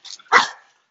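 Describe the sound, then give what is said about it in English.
A dog gives a quick, high yip followed by a single loud, sharp bark, then silence. No one speaks. “Yeah, hi, puppies.”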